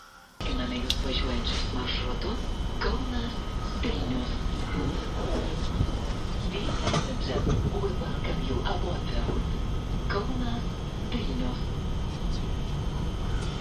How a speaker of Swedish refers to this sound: På tåget till Vilnius.